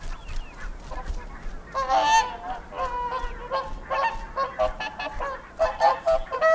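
Geese honking overhead above polder country in Flanders in a steady chorus, with repeated nasal calls overlapping in bursts throughout, fairly loud and with no voices present.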